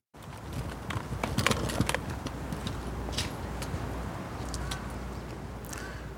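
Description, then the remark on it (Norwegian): Steady outdoor ambience of Fridtjof Nansens plass in central Oslo, Norway, in front of the city hall, with no cars: a low continuous hum with scattered sharp clatters, like hooves clip-clopping and footsteps, and no traffic roar or voices. “Det vi hører altså Fridtjof Nansens plass, en av Oslo sentrums mest sentrale plasser, rett foran rådhuset.”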